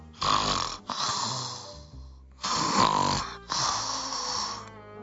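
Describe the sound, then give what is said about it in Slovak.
A voice imitates the snoring of a little girl asleep in her bed, in two long drawn-out breaths, each a rough, rasping inhale followed by a shorter exhale, fairly loud and steady, with no speech. “Aj si k tomu poriadne pílila, teda pochrapkávala. Asi nejako takto.”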